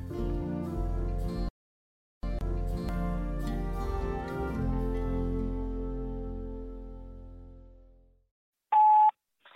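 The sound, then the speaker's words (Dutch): A run of electronic telephone tones rings out steadily, briefly cuts off, then resumes and fades away, followed after a short silence by a single sharp answering-machine beep. No one speaks. “Hoi hoi, antwoordapparaat van de man met de microfoon. Eh, even een telefoontje van Tim.”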